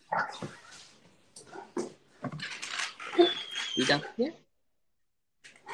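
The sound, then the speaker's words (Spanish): A dog barks in short, sharp bursts mixed with higher whiny yips, loud, while people talk over and between the barks; it is barking because someone has its toy. “Nada, es que tengo su juguete, entonces me está ladrando.”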